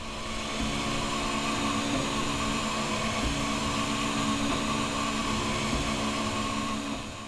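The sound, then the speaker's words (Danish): A 3D printer prints a sculpture, its motors and fans making a continuous, even mechanical whir with a faint tonal hum, unchanging throughout, with no voices. “Det tager en rumtid at printe en skulptur så printerne printer gerne dagens skulptur færdig i løbet af natten.”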